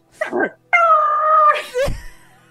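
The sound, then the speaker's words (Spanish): A person mimics the barking and growling of dog-headed characters from a cartoon series: a short yip, a drawn-out whining bark, then one more sharp bark, loud and with no other talking. “Sí, y igual ladraban, y ladraban, y, esa, ah ah y no hablaban, loco, y gruñan.”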